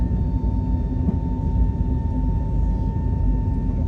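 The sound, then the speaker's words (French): A320neo jet engines roar at takeoff power during rotation, a loud, steady, deep rumble with a thin high whine running through it, continuous, with no voices. The full Transavia France aircraft, with 186 seats, is taking off for Porto. “J'adore le bruit de ce réacteur. Voilà, rotation. Et c'est parti.”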